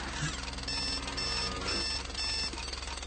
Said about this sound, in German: Aber zuerst bleibe ich liegen, wenn der Wecker wenn der Wecker dröhnt.